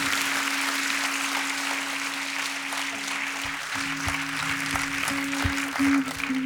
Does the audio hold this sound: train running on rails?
no